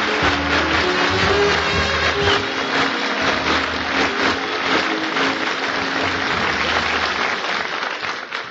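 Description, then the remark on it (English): A studio audience applauds loudly and steadily to welcome a performer, a dense wash of clapping hands that holds for several seconds before beginning to taper off at the end. “You're all laughing and smiling and applauding and glad to see me.”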